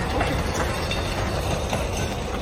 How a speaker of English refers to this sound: Look at this train! Look at it!